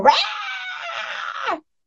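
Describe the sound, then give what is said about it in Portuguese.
A cat named Mulicrim, heard through three closed doors, lets out one long, drawn-out yowl lasting about a second and a half, loud and steady with a high, harmonic whine that sags in pitch just before it cuts off. “Eu fechei três portas aqui, eu tô escutando o Mulicrim gritar de lá.”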